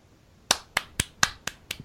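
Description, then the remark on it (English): Six crisp, evenly spaced hand claps in a quick steady rhythm, like a short burst of applause from one person, with no talking. “Yes, that that that is an applaud because nailed it.”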